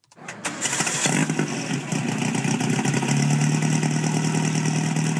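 A 1955 550 Spider race car engine cranks and fires up, then settles into a loud, steady idle with a deep rumble and a buzzing, raspy edge, with no one talking.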